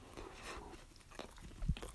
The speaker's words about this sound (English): I was like, wait, let me munch on this non DiGiorno. Mm-mm.